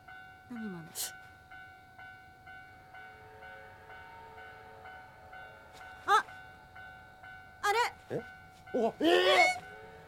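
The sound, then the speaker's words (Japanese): A steam locomotive approaching on a single-track railway line: a steady, droning whistle-like tone over a low rumble throughout, with people's excited voices breaking in near the end. “なんでええ本物だよねいやいやいやありえないでしょ大井川鉄道じゃないんだから”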